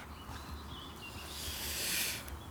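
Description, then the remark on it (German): Soft, continuous scratching and scraping of a dog digging, swelling into a brief burst of hissy rustling before easing off. It's quiet, with no talking. “kannst du bitte aufhören zu buddeln? Ich versuche hier einen Podcast aufzunehmen.”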